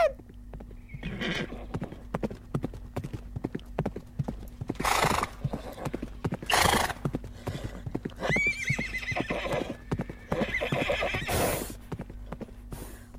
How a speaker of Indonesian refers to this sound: Ayo teman-teman, ayo! Cepat, cepat! Kudanya sudah semakin mendekat.